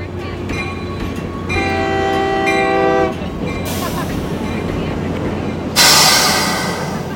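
A train rumbles at the tracks, sounding a long, loud horn blast over the steady engine drone, followed by sharp bursts of hissing air.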